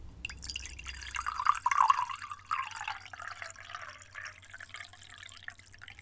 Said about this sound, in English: You close the lid. You boil the water. Then, when it's done, you pour it into the cup.